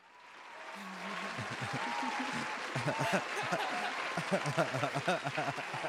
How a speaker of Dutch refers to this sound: Ik ga ze gewoon een applaus geven.